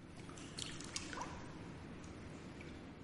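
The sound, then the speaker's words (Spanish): Water shifts and sloshes softly as a body slowly lowers into a jacuzzi, with a few small splashes and drips over a steady bubbling hiss, fairly quiet. “Sumerge despacio todo el cuerpo en el agua.”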